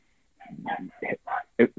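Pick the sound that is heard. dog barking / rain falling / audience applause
dog barking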